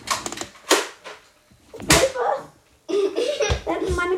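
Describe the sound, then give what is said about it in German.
Two sharp slapping impacts about a second apart as toy darts smack against a person's back, followed by voices and a bit of laughter. “Nee, sie hat noch einen Pfeil. Der hat sie jetzt kommt noch einer. Nicht auf meinen Kopf. Nee. Auf meinen Rücken.”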